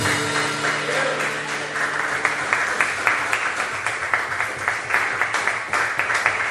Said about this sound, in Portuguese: Vamos aplaudir o nosso Senhor.